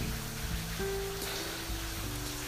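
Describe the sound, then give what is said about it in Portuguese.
Steady heavy rain pours down in Rondonópolis in a continuous, dense wash of noise, with a low background hum underneath and no voices. “Hoje chove aqui em Rondonópolis, muita água.”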